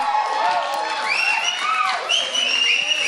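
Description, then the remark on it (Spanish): A crowd applauds steadily and loudly, with high whistles and whooping cheers rising over the dense clapping throughout, applause for the premiere of the radio show Crónicas de la Gran Tenochtitlán on Radio UNAM, 96.1 FM. “Aplauso por...”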